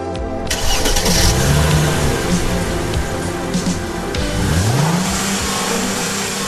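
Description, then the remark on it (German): A vintage Opel car engine cranks and catches, then revs up loudly in rising and falling surges before settling back, with no talking, as the car is driven through traffic. “Ich mühe mich in meinem Oldtimer Opel die Hände am Lenkrad und die Füße auf den Pedalen durch den Verkehr.”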